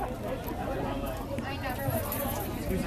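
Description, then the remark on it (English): Dense crowd chatter at a band's show as someone moves through the crowd, a steady wash of many overlapping voices murmuring and talking at once, with no single voice standing out, holding at an even, moderate level throughout. “We're going right through the crowd.”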